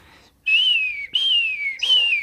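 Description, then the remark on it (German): A person imitates seagull cries with their mouth as a cheap sound-effect trick: three loud, drawn-out, descending squealing calls in quick succession, clear with no talking. “Und dann mit dem Mund natürlich, ein ganz billiger Trick, halt so versucht, Möwen zu imitieren.”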